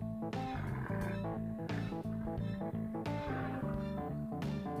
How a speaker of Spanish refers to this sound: El violín produce un sonido agudo, y el rugido de un león produce un sonido grave.